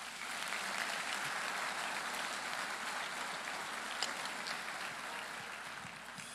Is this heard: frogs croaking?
no